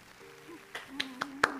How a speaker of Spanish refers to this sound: No, solo aplausos.